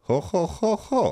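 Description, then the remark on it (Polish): A single voice imitates a repeating motif from a film soundtrack, singing four evenly spaced, short syllables in a steady rhythm, clear with nothing else behind it. “Mniej więcej tak to wygląda, a do tego jest jeszcze taki powtarzający motyw y, w ścieżce dźwiękowej, który brzmi mniej więcej tak.”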